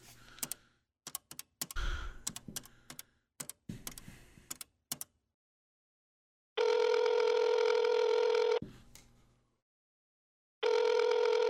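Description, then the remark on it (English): A phone handset clatters and a string of sharp clicks, like buttons being pressed, gives way to a loud, steady dial tone that stops briefly, then starts humming again, as someone calls a wrestling hotline. “Let me um, pick up the phone here and do this real quick and”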